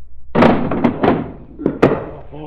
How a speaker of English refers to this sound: Commissioner Weston, notice what happened before the trap door opened.